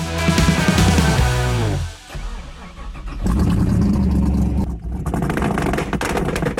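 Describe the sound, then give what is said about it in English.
A car engine revs hard, its pitch climbing through a loud surge, dropping off briefly, then roaring back up into a second sustained rev. No one speaks. “Let everyone hear that horsepower on the Automotive ADHD Show.”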